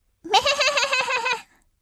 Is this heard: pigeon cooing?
no